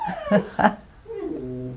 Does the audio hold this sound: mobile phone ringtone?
no